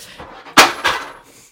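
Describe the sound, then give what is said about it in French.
A chair topples over: a sharp, loud crash followed a moment later by a second clattering knock, then quiet. No one speaks. “parce que nos auditeurs peuvent pas le voir, mais il y a littéralement une chaise qui s'est pété la gueule.”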